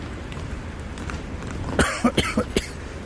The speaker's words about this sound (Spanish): mientras yo paso el ataque de tos.